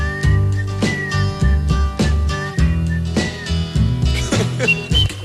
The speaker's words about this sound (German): Pfeifen zum Schluss des Songs war alles andere als perfekt.